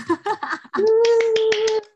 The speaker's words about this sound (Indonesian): Ini harusnya hmm. nanti suara eh, suara-suara tepuk tangan gitu ya.